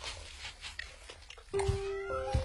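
A cat meows amid soft music, with a drawn-out, steady-pitched cry that starts midway and carries to the end, fairly loud over the quiet backing.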